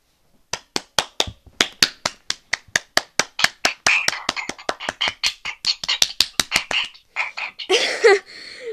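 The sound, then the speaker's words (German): Brisk hand clapping as applause for an intro: about thirty sharp claps in a quick, steady rhythm for several seconds, trailing off into a brief burst of rustling noise at the end. “Einmal kurz nochmal Applaus für das Intro.”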